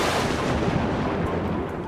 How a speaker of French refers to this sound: J'envoie le tonnerre